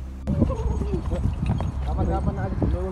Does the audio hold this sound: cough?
no